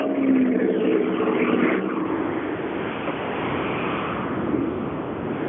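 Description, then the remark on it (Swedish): A rally car engine rumbles at idle at the finish of stage SS3, a low droning hum for the first couple of seconds that settles into a steady, noisy roar with no voices, as the car is switched off. “Stänger av bilen.”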